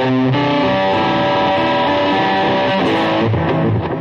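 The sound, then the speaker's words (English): An electric guitar played through an EVH Overdrive pedal, loud and saturated, with sustained distorted chords and shifting note patterns over about four seconds, no voices. “That's the EVH Overdrive. Sounds awesome, man.”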